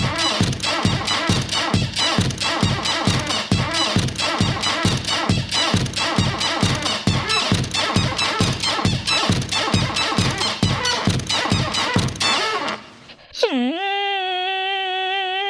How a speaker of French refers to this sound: Pour faire ce morceau, le gars, il a enregistré une porte et rien d'autre. Il aime tellement sa porte, le mec, qu'il a composé une chanson d'amour pour elle.